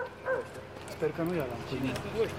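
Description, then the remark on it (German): Several dogs bark in short, scattered bursts over about two seconds, mixed with the voices of logging workers calling the dogs back. “Die Arbeiter rufen die Hunde zurück.”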